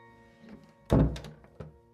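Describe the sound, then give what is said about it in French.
A bedroom door thuds shut with a solid thump, followed by a brief rattle and a softer knock as the latch settles, all against a quiet, faint hum. “Et il m'entraîna dans sa chambre après avoir refermé la porte de celle de Frédéric Larsan.”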